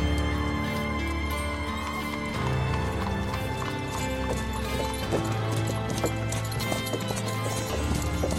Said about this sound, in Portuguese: E aí, vê que ele se adianta no cavalo, o Luck, e deixa vocês ir para trás.